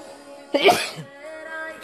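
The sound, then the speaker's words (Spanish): A single sharp sneeze bursts out, brief and forceful, over a steady, faint tonal hum in the background. “No me sueno, pero sí me estoy estornudo el día de hoy, así que vamos a ver qué va a pasar.”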